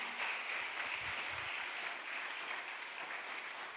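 An audience at a Christian sermon applauds steadily and loudly for 'papá', with dense, overlapping clapping that keeps an even intensity throughout and no voices on top.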